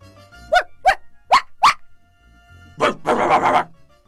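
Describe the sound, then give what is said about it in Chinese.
Three dogs bark: four sharp, evenly spaced barks, then after a short pause a louder, rougher burst of overlapping barking and growling from the dogs. “兵士取出了打火匣，擦了几下，一、二、三，忽然，三只狗儿都跳了出来。”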